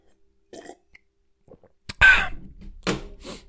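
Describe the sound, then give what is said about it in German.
A voice imitates a man setting his glass down loudly on a table while a job applicant speaks: a couple of soft mouth noises, then a loud, abrupt clunk-like vocal burst and a second thud shortly after, dry. “der war so laut durch seine Anwesenheit, der hat es noch nicht mal geschafft, sein Glas ganz leise auf den Tisch zu stellen, während der Bewerber sprach, sondern es war immer so ein und dann immer so ein”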